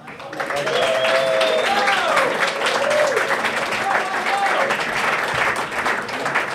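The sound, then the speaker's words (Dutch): Loud, sustained applause from a live audience in Willebroek, a dense wash of clapping that fills the whole stretch, with some whooping and cheering voices rising over it. “Eh, geef hem een daverend applaus.”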